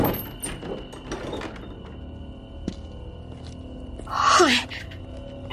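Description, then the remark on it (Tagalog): A door is pulled open with a short, loud swish and a creaking squeal that slides downward in pitch, lasting under a second over a low, steady background rumble. “Tinakbo ko siya sa garden pero pagbukas ko ng pintuan.”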